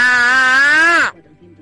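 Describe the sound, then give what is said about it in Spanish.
A single loud, sustained shout about one second long, steady in pitch with rich harmonics, then a slight downward bend before cutting off abruptly into quiet. “Pues con ese grito seguro que la cota de nieve sube en vez de bajar”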